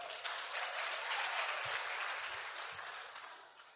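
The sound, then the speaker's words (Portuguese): Sustained applause from a church audience applauding the Lord, a dense crackle of many hands clapping at once, steady and fairly loud before tapering off slightly at the end. “Aplauda o Senhor, pode sentar.”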